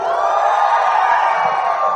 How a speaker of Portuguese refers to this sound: Gente, antes de começar, eu queria pedir para você que é adolescente dar o grito mais alto que você pode aí.